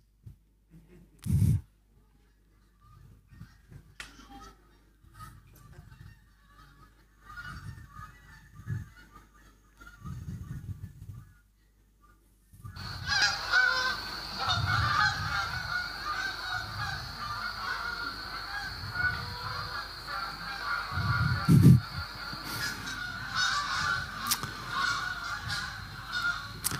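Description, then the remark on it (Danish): A flock of geese honking continuously, sparse calls at first, then a sudden dense chorus of overlapping honks from about halfway through, fairly loud, with no voices. “På engelsk hedder det, de honker, de dytter, eller de...”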